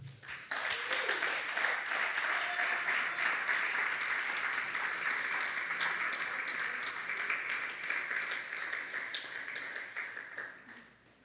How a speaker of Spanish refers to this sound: Junte sus palmas.